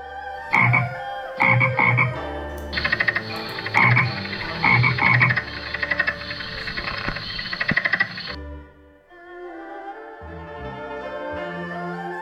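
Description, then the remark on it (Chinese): A frog croaks loudly in repeated bursts, a dense rattling chorus of calls that swells, holds for several seconds, then drops away into quieter, scattered croaks. “当蝮蛇向水蛇发动攻击时，它就大声地呐喊助威。”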